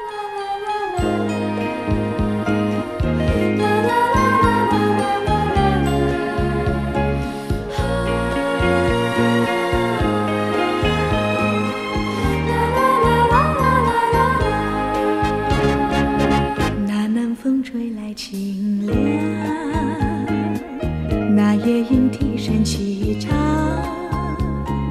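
An old popular song plays as a full instrumental passage: a steady pulsing bass beat under a bright, tinkling melody, loud and continuous with a couple of brief dips, and no singing or talking.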